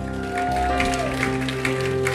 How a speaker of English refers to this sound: Hey, would you give God just a shout of praise, a little hand clap today?